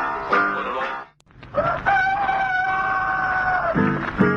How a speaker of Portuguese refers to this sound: A gente pensa que ao romper do dia, o galo canta pra saudar o sol.